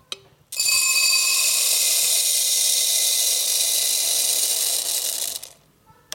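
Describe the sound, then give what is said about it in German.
Small dried beluga lentils pour steadily from a bulk bin's tube into a chrome steel bowl as a handle is pulled in a shop, a dense, bright rattling rush lasting about five seconds, loud, then stopping abruptly. No one speaks. “dann schnappen wir ein Chromstauschüssel, haben es unter die Röhre mit der Beluga-Linse und ziehen an Griff.”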